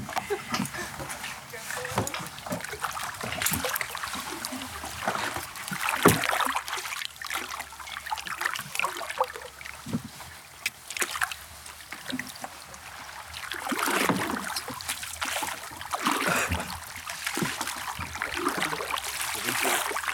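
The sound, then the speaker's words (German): Paddles dip and pull through water at night in a steady rowing rhythm as a boat is rowed away from the lights of a research station, with trickling drips and soft splashes, sustained over the whole stretch without any talking. “Da das Licht aber nicht besonders hell ist, wollen wir erstmal etwas von den Lichtern der Forschungsstation wegrudern.”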